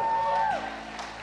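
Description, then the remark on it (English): A brief burst of audience cheering at a church service in response to a call of 'Praise the Lord', led by a single high whoop that holds steady and then slides downward, over a bed of crowd noise that fades slightly afterward. “I said, Praise the Lord, not cheer for the Bears.”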